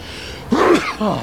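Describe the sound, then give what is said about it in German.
A single sharp sneeze bursts out, a quick vocal 'ah-choo' with a breathy trailing sound afterward. “Gesundheit, ja. Polen.”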